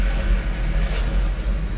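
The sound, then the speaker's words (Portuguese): Heavy traffic of trucks and buses rumbles by on a city street, a steady low engine drone with slight swells as they pass, no voices. “Agora resolveu passar todos os caminhões e ônibus da cidade aqui na rua.”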